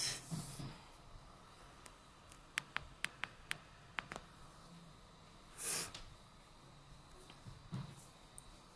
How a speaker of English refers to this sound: start ujjayi breathing. Hear your breath.